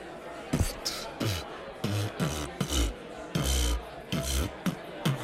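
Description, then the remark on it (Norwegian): A person beatboxes alone: a steady, loud run of deep mouth-made kick thumps alternating with raspy, hissing snare and hi-hat bursts in a quick, bouncy rhythm. “Hei, du, jeg har begynt med beatboxing i det siste. Har du lyst til å høre?”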